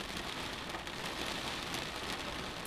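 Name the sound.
heavy rain falling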